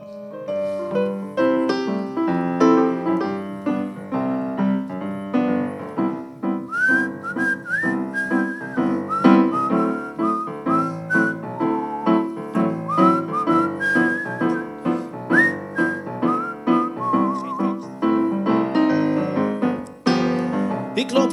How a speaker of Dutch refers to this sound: te fluiten door het park.